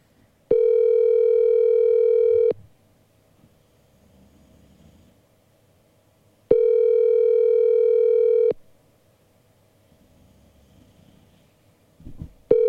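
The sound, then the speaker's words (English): An outgoing phone call's ringback tone: steady, mid-pitched two-second beeps separated by about four seconds of quiet, repeating three times over faint low background rumble. “I'm going to be so pissed if you don't pick this up.”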